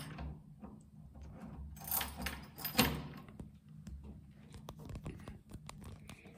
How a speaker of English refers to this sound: This is a little tricky. door needs to be pulled while you try to open it, so it actually wants to open, and that's a little tricky if you've got your hands full. But hey, here we are.